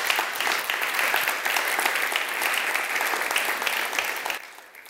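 An audience celebrating its 30th anniversary applauds steadily, a dense wash of many hands clapping at an even, sustained level for several seconds before quickly fading out at the end.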